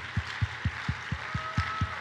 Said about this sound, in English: Come on, clap your hands until they all get back in here. Don't stop until they all get back in here.